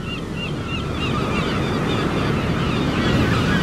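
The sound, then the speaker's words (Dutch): Steady roar of sea surf washing onto a beach on a sunny day, a dense continuous rush with gentle swells, while birds call faintly and intermittently above it. No one speaks. “Dat is toch altijd fijn, hè, die zee.”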